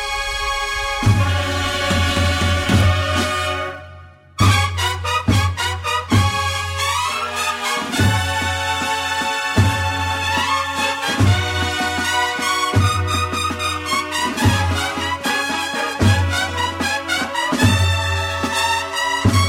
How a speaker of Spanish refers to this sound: las dos marchas nuevas tienen cortes historicistas también, ¿no? Hay mucho sonido romano, sí, muy, clásica, es muy, clásica de los nuevos tiempos